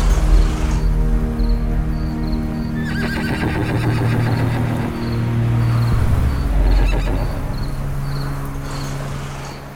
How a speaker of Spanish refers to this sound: El caballo sigue comiendo heno, escucha a su viejo amo y exhala un aliento húmedo y cálido.